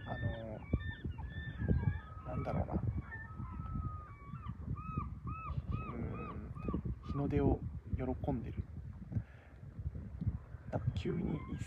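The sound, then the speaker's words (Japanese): A flock of seagulls calls together on a cool, fresh morning, repeated arched cries rising and falling in overlapping bursts, starting and stopping, while a person talks over them. “カモメがねめっちゃあの”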